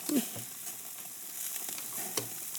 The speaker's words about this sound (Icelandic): Nei, þessi var svolítið snúin. Þarna var verið að grilla og ah.